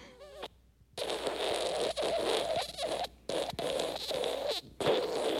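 A long, wet, sputtering fart sound effect called "Wet fart", loud, spluttering on for several seconds with a few brief breaks. A short voiced sound comes just before it.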